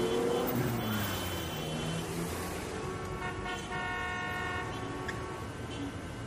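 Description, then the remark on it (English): A busy city street with a steady rumble of cars driving by and pedestrians passing, broken by several sustained car horn honks that overlap in the middle of the scene, with faint indistinct voices mixed into the noise. “Cars are driving down the street, other pedestrians pass, chaotic city noise fills your ears.”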